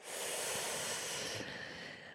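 A steady hissing breath drawn in through clenched teeth with lips parted, shifting partway through into a softer, breathy exhale through the nose, in a Sitali pranayama breathing exercise. No one speaks.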